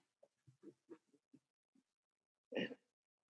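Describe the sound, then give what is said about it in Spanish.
Several soft, quick sipping sounds of a drink, followed by a brief louder breathy burst like an exhale or throat clear, then silence. No speech. “Sorbo de por medio.”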